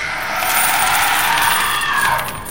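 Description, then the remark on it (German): A dense, continuous jingle of many coins clinking and shifting together, bright and fairly loud throughout, with no voices, easing off slightly at the very end. “Und die Münzen presst's nach oben.”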